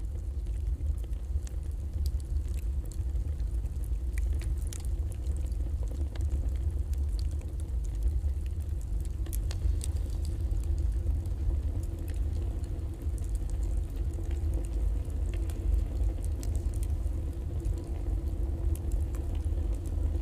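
A steady, deep roar like a boiler furnace or bakery oven, with heavy low rumble and faint crackling ticks on top, continuous and unchanging throughout, with no voices.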